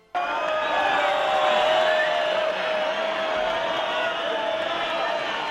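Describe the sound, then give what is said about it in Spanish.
A large bullring crowd roars with loud, sustained disapproval as a bullfighter squares up to go in for the kill, a dense wall of shouting and jeering voices that fills the whole stretch without letting up. “Y cuando encima lo gritan mientras el torero se está cuadrando para entrar a matar, bueno, pues eso, bronca fuerte.”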